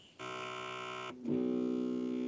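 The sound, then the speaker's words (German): A camera reinitialising gives a steady electronic hum with a rich stack of tones that drones for about a second, briefly drops out, then resumes slightly louder and lower-pitched, continuing steadily with no talking. “Äh, das war meine äh, Kamera, die sich reinitialisiert hat.”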